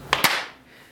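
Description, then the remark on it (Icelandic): A pair of sharp hand claps made to sync a recording, in quick succession, bright and fairly loud, followed by a short fading tail of reverberation and then quiet, with no talking. “Gera klappið.”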